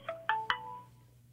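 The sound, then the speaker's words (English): A mobile phone goes off with three quick, bright electronic chime notes in a rising pattern, their tones briefly ringing out before fading. Fairly soft, with no talking. “sorry, my phone went off.”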